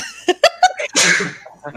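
A loud sneeze: several short, sharp catching gasps build up, then an explosive, breathy burst trails off, followed by a faint sniffle.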